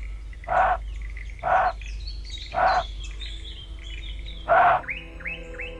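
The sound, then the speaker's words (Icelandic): Four short, husky, cough-like barks from a thylacine (Tasmanian tiger) call recreated with computer technology, spaced unevenly a second or two apart, loud, with soft birdsong chirping in the background. “Á síðari árum hafa áhuga samirreint að endurskapa gelt tígursins með hjálp tölvutækninar.”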